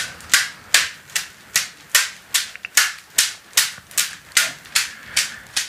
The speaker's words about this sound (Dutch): Ja, nu draait ze de zweep rond, inderdaad. En tijdens elke omwenteling komt hij dus tegen de billen.